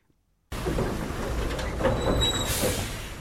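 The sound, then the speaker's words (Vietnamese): A convoy of heavy dump trucks rumbles past one after another on a potholed, dusty road into Trường Xuân commune, Quảng Ninh district, Quảng Bình province, Vietnam, serving stone quarries: a loud, continuous low roar that cuts in abruptly after a brief silence, with a thin metallic squeal rising near the end. “Con đường vào xã Trường Xuân, huyện Quảng Ninh, tỉnh Quảng Bình, dài đặc ổ gà, từng đoàn xe ben nối đuôi nhau chạy ầm ầm, bụi bay mù mịt.”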